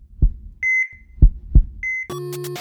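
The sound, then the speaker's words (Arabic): Deep, thudding heartbeats of heart palpitations pound unevenly, with short high electronic beeps in between, ending in a sudden buzzy electronic tone. No one speaks. “بس احنا احنا كل هالكلام احنا ما ورينا الناس شلون اصلا يمكن يسمعون صوت الرقعه صح لان صوت الرقعه هو بالضبط”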